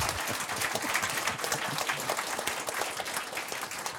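An audience applauds steadily as a panel member is introduced before a presentation, a dense, even patter of many hands clapping at once that holds at a constant level without pause.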